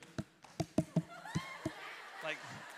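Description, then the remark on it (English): About six sharp, fairly crisp hand claps land at uneven, off-beat intervals, while faint voices murmur underneath toward the end. “a circus seal clapping for celebration.”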